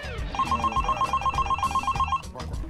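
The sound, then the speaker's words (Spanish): A telephone rings with a rapid, trilling electronic chirp, one continuous burst of about two seconds, fairly loud, with no one speaking. “Suena el teléfono.”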